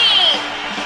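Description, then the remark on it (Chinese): A loud, dense wash of audience applause with cheering voices mixed in, steady for under a second and easing slightly in volume toward the end, as the audience of the Daming Talk Show welcomes the star at the opening of the show. “Ladies and Gentlemen，现在是大明脱口秀时间，掌声欢迎我们亲爱的 s t a r”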